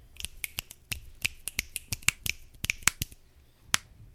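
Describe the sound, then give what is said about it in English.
A scattered flurry of crisp finger snaps from several people on a Discord call, about fifteen sharp clicks in irregular, overlapping timing, moderately loud, with no talking. “I was snapping.”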